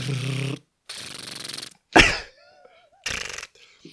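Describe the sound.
A voice makes rapid, rattling mouth noises imitating machine gun fire, several short bursts separated by brief pauses, fairly loud, with one sharper explosive puff in the middle.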